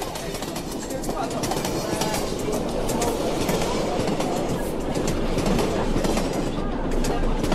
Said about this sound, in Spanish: Él y su abuela van en el metro camino a casa regresando de ir a nadar un rato en la alberca.